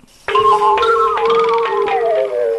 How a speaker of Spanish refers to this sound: Eso es el timbre de la puerta. Date prisa, que no vuelva a sonar.